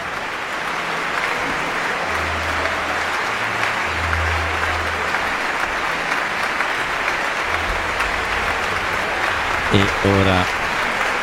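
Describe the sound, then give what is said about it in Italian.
Sustained applause from a concert audience for conductor Sir Simon Ratcliffe, who is to conduct the London Symphony Orchestra in Stravinsky's The Rite of Spring; a dense steady wash of clapping that holds at an even level throughout, with a few low tonal hums and a brief sound near the end. “gli applausi sono per Sir Simon Ratcliffe che dirigerà la London Symphony Orchestra in un altro brano che lui adorava che era la Sagra della Primavera di Igor Stravinsky”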